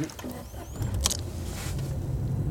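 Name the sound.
getting into a car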